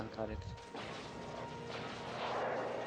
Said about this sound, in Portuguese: Ei, é explosão. E as coisas explodem. As coisas explodem.